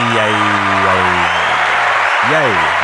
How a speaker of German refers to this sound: Der berühmt-berüchtigte Mann aus der blauen Ecke ist wieder da. Begrüßt mit mir und einem tosenden Applaus den äh, wagseligen äh,